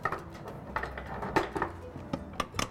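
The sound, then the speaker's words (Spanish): A blender being opened up, its metal parts clinking and clacking in a quick, irregular series of sharp knocks and taps, with no one speaking. “Ahora, si quieres, podemos abrir esta y vemos la diferencia entre una y otra.”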